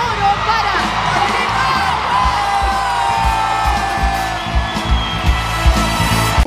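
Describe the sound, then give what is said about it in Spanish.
A large festival crowd at the Quinta Vergara in Chile roars with cheers, whoops and shouts, a dense wall of voices, with rhythmic low thumps and claps pulsing underneath throughout. “Y la quinta vergara te aplaude”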